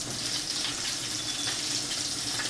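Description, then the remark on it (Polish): Water runs in a steady, continuous stream into a pan of fried mushrooms and chopped onion being stewed, a moderately loud splashing pour with no talking. “Teraz do naszych e, obsmażonych już nieco pieczarek dorzucimy pokrojoną cebulę i zaczniemy sobie całość dusić pod przykryciem, raz po raz dolewając niewielką ilość wody.”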